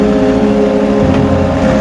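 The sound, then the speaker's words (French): The engine of the last truck rumbles loudly and steadily with a deep, droning hum, continuous for the whole moment, with no voices. “Professeur, c'est le dernier camion. Le dernier camion.”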